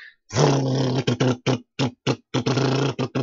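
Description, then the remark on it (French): A voice imitates a sputtering, misfiring engine: a long growling rumble, then a string of short, uneven bursts with brief gaps, loud, with no words spoken. “Parce que, mais ce qu'il y a, c'est, on dirait, je vais dire comme ça, un moteur qui a des ratés.”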